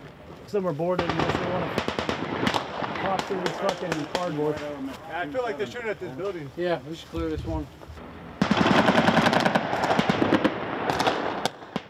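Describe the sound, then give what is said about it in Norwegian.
Bursts of automatic gunfire crack repeatedly through a stretch of excited speech during a realistic military training exercise as soldiers move through city streets, with a dense, louder volley of rapid shots near the end. “Hver gang en soldat blir skutt, går det en alarm inni stridsvesten.”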